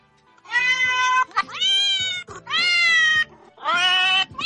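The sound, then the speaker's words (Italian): Four drawn-out, tonal cat meows in a row, loud, each rising then falling, with brief gaps between them and no talking, played by the Ciao Miao app, which translates a recorded phrase into cat language. “la traduce in gattese, credo che sia l'applicazione più inutile che esista, però eh, ve la segnalo, si chiama Ciao Miao.”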